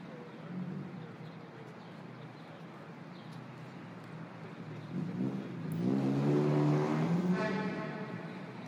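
Steady city street traffic in Lisbon rumbles throughout, then a vehicle engine swells loudly and revs past before easing off, leaving the constant hum of the road behind.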